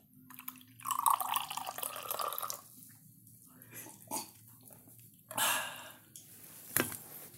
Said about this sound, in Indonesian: Kopi dulu, tuangin dulu. Biar kedengeran. Oh iya bener harus dekat.